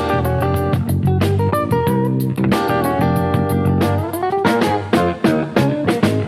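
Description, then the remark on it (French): A jazz fusion band plays with the bass guitar pushed forward in the mix, its busy, melodic lines running under sustained chords and a steady ticking cymbal pattern. No one speaks. “ce son de basse, il est un peu trop en avant en fait.”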